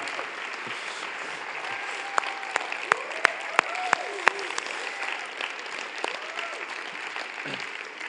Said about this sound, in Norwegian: Takk for at du tar turen fra Vigrestad og inn hit for å være sammen med oss. Vi må anerkjenne han med en applaus. Takk skal du ha.